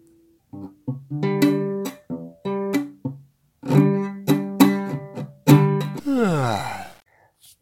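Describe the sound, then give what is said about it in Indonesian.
A voice imitates a badly fretted, dull muted acoustic guitar chord strum with a series of short, choppy syllables, several quick bursts in rhythm, ending in a sliding, wavering tone, fairly loud. “Belum ada suaranya, masih jambul kelutuk jambu kluduk gitu suaranya seperti ini”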